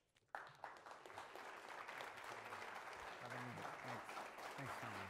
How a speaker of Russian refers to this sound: Аплодисменты.